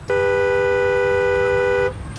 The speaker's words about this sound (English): And speaking of volume, this is the sound of a car horn from inside a car.